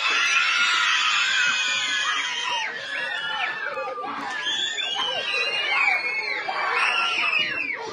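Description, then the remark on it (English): A crowd of elementary school children cheers and screams in continuous high-pitched excitement after getting news that they no longer have to wear masks, many voices overlapping with rising and falling shrieks, loud throughout. “They were cheering and extremely happy when they got the news.”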